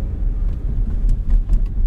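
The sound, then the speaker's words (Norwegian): Steady low road rumble from inside a moving car driving to a cabin and back, a continuous engine and tyre drone filling the background with faint, brief higher whooshes passing now and then. “Men nå når vi kjører i bil til hytta og tilbake etter Halvla, er, er vi, ikke her?”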